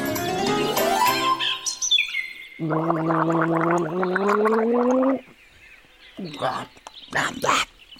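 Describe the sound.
Someone gargles water, a steady, voiced, bubbling gurgle lasting a few seconds, followed by a few short spitting or splashing noises. Other brief vocal sounds come just before.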